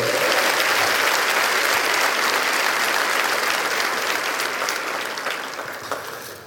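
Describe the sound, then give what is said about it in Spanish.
Sustained applause from an audience, given to God as the King of Kings and Lord of Lords, a dense wash of many hands clapping at steady loudness that begins to fade slightly toward the end. No one speaks over it. “Cuando le da un aplauso al Rey de Reyes, al Señor de los Señores.”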